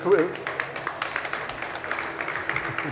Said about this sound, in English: Applaus from the crowd.